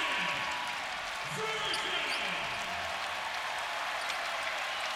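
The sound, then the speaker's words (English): A large arena crowd at Rocket Mortgage FieldHouse gives a sustained ovation for Anderson Varejao as he checks into the game, a steady roar of cheering and clapping that holds at an even level for the full five seconds, with a faint voice briefly underneath. “And here's the ovation for Anderson Varejao.”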